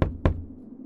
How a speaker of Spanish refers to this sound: Así que, estaba solo en casa cuando escuché golpes en la puerta de la entrada.